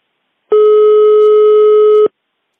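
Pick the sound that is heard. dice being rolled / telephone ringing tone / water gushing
telephone ringing tone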